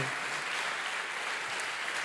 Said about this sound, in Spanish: Eso se merece un fuerte aplauso al que vive.